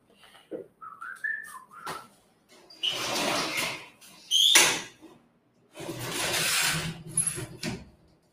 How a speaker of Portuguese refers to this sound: Enquanto isso, eu vou fechar a janela, que ver se diminui um pouco o barulho.